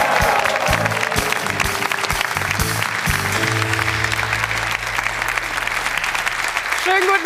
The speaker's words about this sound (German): Aber Stefan, freu dich nicht zu sehr, denn das wird jetzt noch getoppt beim Applaus für meine Kollegin Jana Wosnitzer.